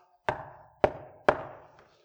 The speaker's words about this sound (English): Do you know, in the midst of that petition, when they were getting the signatures all round here to back it to bring to the council meeting, my door knocked